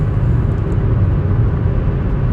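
Steady low engine drone and road rumble fill the cabin of a moving car on newly fitted summer tyres, a constant, fairly loud hum with no voices or breaks.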